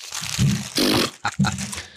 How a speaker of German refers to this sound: Ich dachte, ich dachte, ich dachte, das, was da gerade zerknüllt wurde, war das Trainingskonzept von Erdin Tese, äh, von Edin